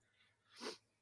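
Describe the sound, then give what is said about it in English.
A single sharp sneeze bursts out, a short breathy rush that swells and quickly fades, with no talking around it. “Excuse me. Bless you.”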